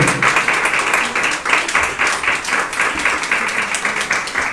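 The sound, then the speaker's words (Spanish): An audience claps steadily as an offering of praise to the Lord during a sermon on baptism, a dense, continuous wash of applause, many hands striking at once, fairly loud, with no voices standing out. “Bajéle ofrenda de palmas al Señor, pues con todo su corazón.”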